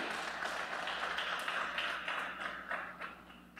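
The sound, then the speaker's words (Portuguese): A church audience applauds for the Lord during a service, many hands clapping in a dense, steady crackle for several seconds before it starts thinning out and fading toward the end. “Você pode dar uma salva de palmas para ele? Bem forte, igreja.”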